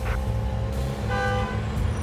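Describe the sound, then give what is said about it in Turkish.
Constant low traffic rumble fills the background while car horns toot briefly, one short honk standing out midway, as traffic crawls slowly toward Edirnekapı. “Beş dakika sonra aracımızda ben kaşarlı sandviçimi, Ali ise ıslak hamburgerini dişleyerek yeniden Edirne kapıya doğru ağır ağır akan trafiğe bırakmıştık kendimizi.”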